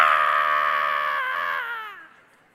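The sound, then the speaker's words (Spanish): A single loud, sustained scream from a voice imitating a woman in labor, held for about two seconds before trailing off and dropping in pitch at the end. “Y al final, las últimas horas son gritos.”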